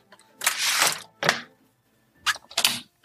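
A window being shut: a long scraping slide followed by a sharp clunk, then two more quick knocking latches, all fairly loud with no voices.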